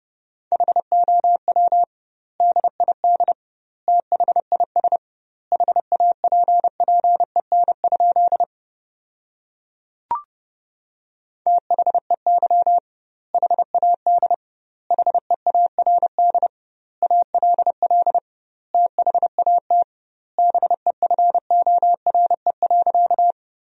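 Fast Morse code tones at 30 words per minute with double word spacing, sending sentences built from the 400 most common words, at a steady mid pitch, short dits and longer dahs grouped into words with clear gaps between them, sounding alone with no talking.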